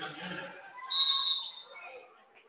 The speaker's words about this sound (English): And a whistle there.